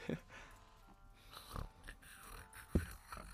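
Soft, snuffly snoring from a sleeping animal, a few irregular snorting breaths spaced about a second apart, fairly quiet.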